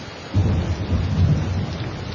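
Steady rain hisses without a break, joined after a moment by a deep, sustained rumble underneath that persists to the end. No one speaks.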